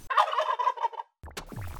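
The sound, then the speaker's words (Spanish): A turkey gobbles in a fast, warbling burst lasting about a second, then after a short pause a second rougher, noisier call follows, clear with no talking. “Em, ¿Un pavo?”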